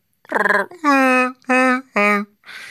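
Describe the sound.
A person imitates Chewbacca's growling roar with their voice: four loud, throaty, wavering howls in quick succession, ending in a softer breathy rasp, with no other talk.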